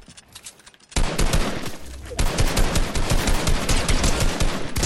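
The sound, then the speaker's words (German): Sustained rapid automatic rifle fire from a video game, an opponent spraying with a SCAR, a dense stream of sharp cracking shots that starts abruptly after a quiet second and keeps spraying loudly to the end. “Mann, dieser Typ sprayt die ganze Zeit.”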